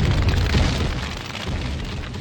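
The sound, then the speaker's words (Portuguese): A MOAB bomb explosion effect: a deep, sustained rumbling roar with heavy bass, staying loud and fairly steady for a couple of seconds, with no voices. “solta Moab, fogo do motor, Moab, Moab,”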